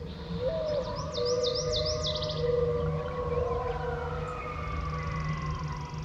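Coyotes howl at dawn in long, wavering, sliding cries that overlap one another, while birds of the dawn chorus chirp in quick bursts above a steady outdoor hiss.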